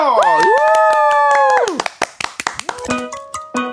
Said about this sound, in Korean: 박명수, 뜨거운 박수요!